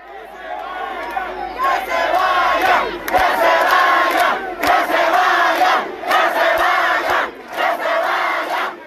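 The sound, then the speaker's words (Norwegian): A large crowd at a demonstration in Havana, Cuba roars and chants together in a dense, continuous wall of voices, with rhythmic surges and brief sharp accents rising above the sustained cheering. “Det vi hører her, er ikke fra Wembley i London, men fra Havanna i Cuba.”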